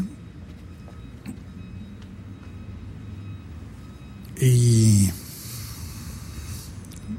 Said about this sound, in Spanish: Ah, no sé acaba de pasar el camión de la basura, a llevarse la basura